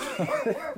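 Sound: dog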